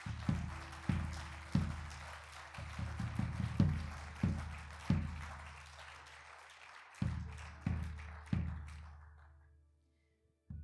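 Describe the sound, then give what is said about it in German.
An audience applauds God, a dense crackle of many hands clapping together over steady, regularly spaced low thumps, then fades out near the end. No one speaks. “Lass uns Gott mal für diese Wahrheit einen Applaus geben.”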